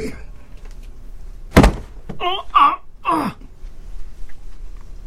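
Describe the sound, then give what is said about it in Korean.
A single heavy wooden thud as a grandfather strikes a bedroom door with a hammer in the early morning hours, landing sharply, followed by a drawn-out wavering moan from a voice. “할아버지가 사정없이 내 방문을 내려치고 계셨다.”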